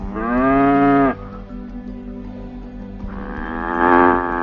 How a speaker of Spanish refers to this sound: Una vaca. Da la leche y nace completa,